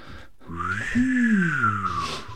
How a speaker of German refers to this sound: das pfeifende Geräusch, was Sie gerade im Hintergrund hören, ist äh, Johann Wolfgang von Goethe, der mit Hochgeschwindigkeit in seinem Grab rotiert.